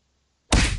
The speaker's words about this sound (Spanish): como un puñetazo, como este.